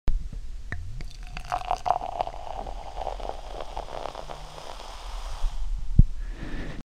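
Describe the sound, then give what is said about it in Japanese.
Natural sparkling wine is poured into a glass, a steady splashing stream with fizzy crackles and pops running for several seconds, then a brief sharp tap near the end. “そうですつまりシュワシュワですね、はいじゃあちょっと音を取るんでグラスに入れるところからお願いします”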